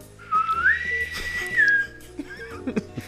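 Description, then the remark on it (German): A single shrill whistle is blown, sliding up in pitch, holding a steady piercing note for over a second, then dropping off, followed by a few faint clicks and knocks. “Ich will auch so eine Pfeife haben.”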